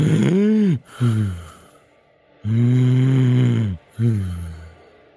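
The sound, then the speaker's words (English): A voice imitates the labored breathing of a dying, slumped black dragon: two long, loud, rasping groans, each followed by a short snorting catch of breath, with a pause between them. “the sounds of a dying animal.”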